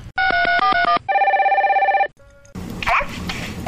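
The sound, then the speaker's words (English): On an outgoing call, a quick run of electronic phone tones gives way to a loud, warbling telephone ring heard over the line, then a short beep and a muffled voice as the call connects. “Let's make a phone call.”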